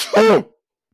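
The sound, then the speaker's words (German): A single sharp sneeze: a brief breathy lead-in, then a loud voiced burst that cuts off quickly, followed by silence. No talking over it. “ja, Gesundheit, Kumpel.”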